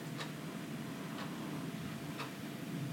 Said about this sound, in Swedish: Jag hör min klocka som tickar på väggen